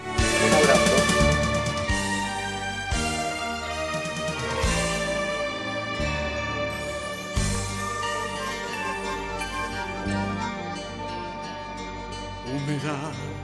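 An instrumental song intro plays steadily and fairly loud, with rich sustained chords shifting every couple of seconds and bright melodic lines on top, and no singing or talking yet.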